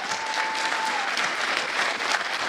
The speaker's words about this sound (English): One more round of applause for the preschool kids choir at Flat Creek.